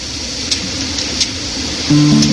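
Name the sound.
river rapids rushing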